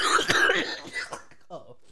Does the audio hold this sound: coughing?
yes